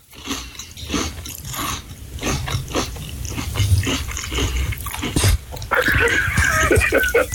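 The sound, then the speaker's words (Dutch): Crisp crunching as someone bites into a fresh milk toast topped with filet américain and chews, the brittle crackles coming in an uneven, steady rhythm for several seconds with no talking. “Nou, dan neem ik even een, hapje.”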